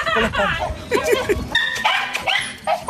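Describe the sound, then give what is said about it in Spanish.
A dog barks and yips excitedly several times in quick, uneven bursts, fairly loud, as a man goes in with it, with people's voices mixed in around the barking. “Ahí entró con el perro.”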